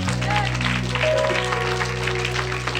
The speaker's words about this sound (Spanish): Fuerte ese aplauso al que vive.